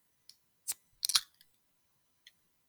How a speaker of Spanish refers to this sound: Y pues como es tradición de podcast y como es tradición del Blumero, pues antes que nada quiero abrir una chelita.